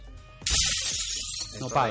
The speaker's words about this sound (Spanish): Se romperon los vidrios.